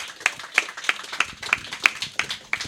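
An audience claps in unison to welcome a show's guest: about nine sharp, evenly spaced claps in a steady beat, fairly loud, with no talking over them.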